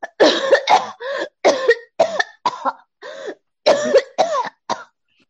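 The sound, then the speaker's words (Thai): A voice imitates a princess character's cough: a series of rapid, raspy coughs, about ten short bursts in quick succession with brief gaps, fairly loud, with no other talking. “นั่นแหละ ส่วนไอไอไอเจ้าหญิงมันไออย่างนี้”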